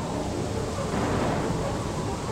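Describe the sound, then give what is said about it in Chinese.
Steady, dense hiss of heavy rain with a deep low rumble underneath, a night thunderstorm on a deserted island in full force; the roar stays loud and even throughout with no voices. “首先，暴风雨到了，”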